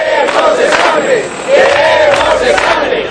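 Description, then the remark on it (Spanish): A large crowd chants and shouts together at a street protest at the gates of a government subdelegation office, after arriving in vehicles from the university campus, loud and continuous, with voices rising in rhythmic waves that swell again about halfway through. “después de una manifestación a bordo de sus vehículos desde el campus universitario hasta las puertas de la subdelegación del gobierno en en donde eh, se manifestaban de este modo”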